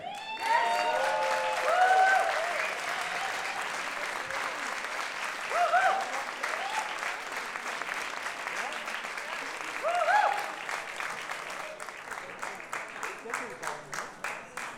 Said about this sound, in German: Begrüßt bitte mit dem wärmsten Applaus, den wir heute am Abend haben,